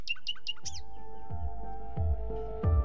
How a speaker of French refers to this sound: Et que de choses il y aurait dans le chant d'un oiseau. C'est tout l'avenir qui chanterait dans sa voix.